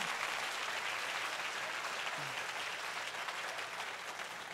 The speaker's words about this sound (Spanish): Si usted va a aplaudir, si usted... No, es que yo no sé.